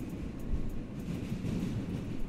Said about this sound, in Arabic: فركبنا قطر A وغيرنا القطر R نزلنا في محطة ستاينوي ستريت ليتل ايجيبت